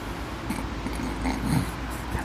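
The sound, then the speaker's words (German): A dog snuffles and snorts softly, a few short huffing breaths over a steady low outdoor rumble, with no one speaking, on a family farm at the edge of town. “Und ein Hund ist halt auch.”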